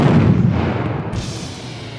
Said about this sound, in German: Weil er das Lasergitter nicht sehen konnte, gab es schon kurz darauf eine dezente Explosion